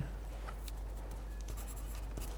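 A pencil tip scratches steadily across paper, writing out English vocabulary words, with short irregular strokes and faint taps over a constant low hum, quiet throughout and with no voices.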